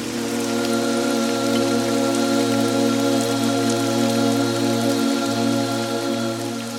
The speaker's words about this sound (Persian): سرانجام درهای آسمان را گشودیم و آبی فراوان و پیوسته باری